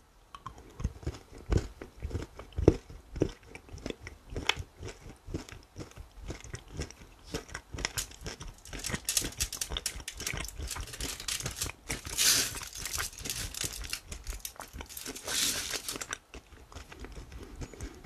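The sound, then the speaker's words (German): Biting and chewing the last piece of a chocolate bar, with an initial snap followed by steady, wet mastication and occasional crinkly crunches, loud, with no talking. “Ich also wir noch, keine Ahnung, drei, vier, ich habe noch fünf Rippen, aber für die Folge das letzte Stück.”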